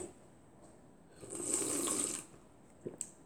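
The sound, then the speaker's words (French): A single loud, drawn-out slurp of coffee lasting about a second with a hissing, airy rush over wet gurgling, followed by a couple of quick lip smacks. “Ah, j'ai envie de boire mon café comme un gros porc.”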